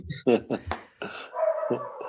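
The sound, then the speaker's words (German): A pet dog barks four times in quick, sharp, loud bursts, followed by a softer drawn-out tone that trails off to the end. “Untermalt von meinem Hund.”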